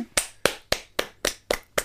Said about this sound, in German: Sehr gut. Applaus sehr für Erik. Sehr gut, Erik.